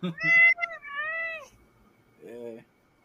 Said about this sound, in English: So that's my cat.